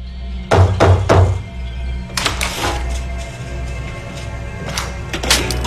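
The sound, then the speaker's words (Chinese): Heavy pounding as a landlady bangs open a tenant's room door: three loud, booming thuds in quick succession, then a pause and a scattered series of further bangs and knocks, some sharper and rattling, with no voices. “包租婆立马咣咣砸开了阿宅的房门。”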